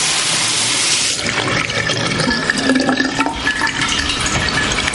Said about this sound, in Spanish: Al poco … se coloca frente al lavabo y abre el grifo dejando caer el agua sobre su mano.